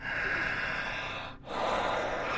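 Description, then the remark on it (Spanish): Loud, heavy breathing: a long forceful breath, a brief pause, then another deep rushing breath, with no talking. “sigue respirando fuerte.”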